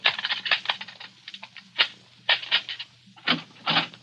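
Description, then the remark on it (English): A locked door to a room with a phone in it being picked open with a small gimmick: irregular bursts of small metallic clicks, scrapes and rattles, pausing briefly between flurries, with a faint low hum underneath and no voices. “I got a little gimmick here that might open it.”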